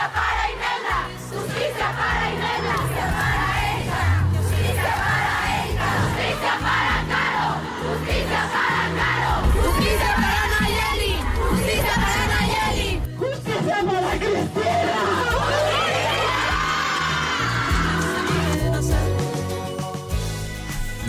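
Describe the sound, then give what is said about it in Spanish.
A large crowd of about 35,000 women at a March 8 march in Guadalajara, demanding justice for femicides, chants and shouts continuously, many voices yelling together in a loud, dense roar with rhythmic surges and occasional whoops and piercing cries rising above the mass. “Ayer 8 de marzo, una marea de 35 mil mujeres hizo historia en esta ciudad. Tomó las calles para marchar por las que ya no están, para exigir justicia por esos feminicidios”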